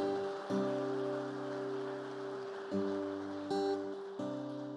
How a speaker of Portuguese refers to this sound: Receba o Senhor, receba o casal aplaudindo ao Senhor.